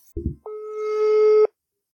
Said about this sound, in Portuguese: Eu fui ligar pelo WhatsApp não deu. Aí eu fui ligar pelo telefone tá falando linha ocupada.